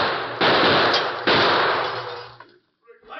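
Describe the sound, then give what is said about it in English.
Two loud, sharp gunshots from outlaws' guns ring out about a second apart, fired at the Lone Ranger and Tonto in a restaurant, each leaving a long, harsh rumbling decay before the sound drops away to near silence. “As they hugged the floor and dodged lead from the outlaws' flaming guns, the Lone Ranger and Tonto heard the approach of several men outside the restaurant.”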